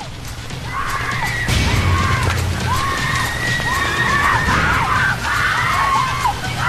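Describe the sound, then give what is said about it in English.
A woman in a film scene gives shrill, high-pitched screams again and again in rising and falling wails, loud, over a rumbling, chaotic background. “I, am not too fond on her scream at all.”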